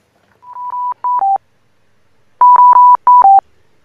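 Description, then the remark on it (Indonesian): Two quick bursts of electronic phone keypad beeps as someone dials a call, each a short run of clipped tones separated by a brief pause, loud with no one talking. “oke coba kita hubungin”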